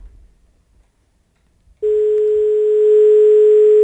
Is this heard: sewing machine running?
no